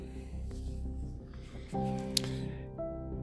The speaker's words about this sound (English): Again, he now hears more rustling on the edge of the woodland. That deer's getting ever so close, he thinks.